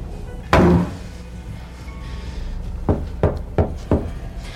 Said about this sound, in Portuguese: bateu a porta do armário no meio da escada.